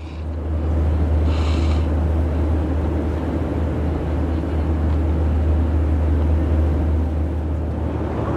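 A steady, loud roar of aircraft engines with a deep low hum and broad rushing noise, unchanging throughout, as an airplane carrying a badly burned patient takes off from Poland for Germany. No one speaks.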